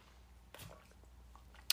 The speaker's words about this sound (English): I'm going to take a quick sip of water.